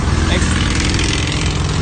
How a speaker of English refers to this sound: got a big motorcycle giving us thumbs up here.